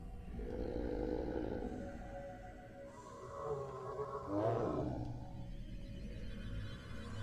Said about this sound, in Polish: I w pewnym momencie słyszysz dźwięk, warkot roznoszący się wśród listowia